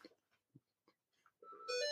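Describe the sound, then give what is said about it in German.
A mobile phone ringtone signalling an incoming call starts up near the end, a bright, tonal electronic melody that grows loud after a few faint, scattered sounds. “Ja, ich, oh, mein Telefon klingelt.”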